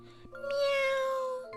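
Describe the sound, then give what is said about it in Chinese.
A single drawn-out cat meow, fairly loud and steady, with a bright, slightly nasal tone that holds its pitch and dips a little before fading out, with no talking over it. “他正朝前看呢，左边又有一声猫叫。”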